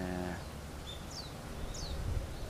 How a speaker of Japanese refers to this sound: 僕が全然座ったとこから動かないのでそれをいいことにしてかヒヨドリがめっちゃ近くに寄ってきてますいっぱいいますね